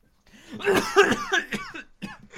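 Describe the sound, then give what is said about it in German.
A series of rough, hoarse coughs from a person with a cold, ragged and uneven over about two seconds, mixed with strained, croaky voicing between the bursts. “Oder Erkältung lässt Jodel gerade nicht zu, sorry. Oh Gott, das war nicht mal gestellt.”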